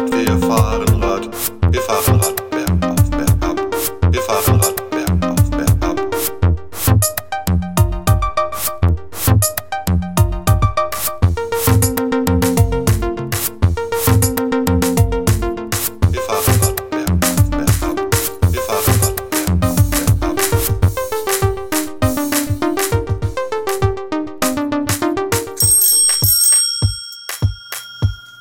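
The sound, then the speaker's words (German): A minimal electronic track, an old song the speaker made about half a year earlier, of bright, bell-like synth notes repeating in a steady, busy rhythmic pattern, loud with no voices, thinning out to a few sparse high tones at the end. “So, ja, das, was ihr da gerade gehört habt, ist ja ein alter Song, den habe ich ja schon mal vor, ich weiß gar nicht, einem halben Jahr oder so gemacht.”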